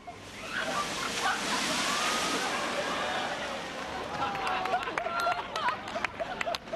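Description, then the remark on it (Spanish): A big storm wave crashes over the sea wall at Paseo Nuevo and reaches the road, soaking three English tourists, in a loud, broad roaring rush of water that swells and slowly fades, followed by chatter, shouts, laughter and scattered sharp claps from dozens of onlookers filming with phones. “Paseo Nuevo, pues decenas y decenas de personas disfrutan móvil en mano del espectáculo de las olas. Algunas sobrepasan el muro, llegan hasta la calzada, tres turistas ingleses.”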